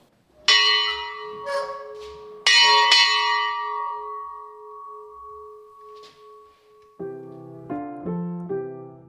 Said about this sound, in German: Und einer dieser Sammlungsstücke ist auch diese Glocke aus dem Jahr 1598 und die jedes Mal großes Entzücken hervorruft. Es ist laut.